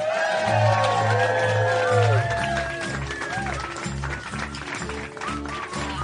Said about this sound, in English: Let's welcome them to the stage. Big round of applause for Tom Thakkar and Tommy McNamara.